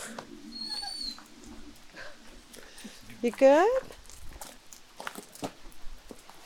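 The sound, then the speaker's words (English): A dog lets out a high, wavering whine near the middle, with softer whimpers around it, as the other dogs say goodbye to a departing puppy, while people talk quietly. “oh, the other dogs are saying goodbye.”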